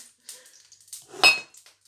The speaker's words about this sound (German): Ja, aber man hört auf jeden Fall, die Pfanne ist heiß.